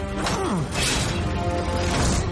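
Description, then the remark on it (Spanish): Bron fires a bolt from a giant crossbow (ballista, a scorpion) at the dragon Drogon, with a heavy mechanical thwack and a rushing whoosh, loud, set against a dense, roaring wall of battle noise. “Bron dispara.”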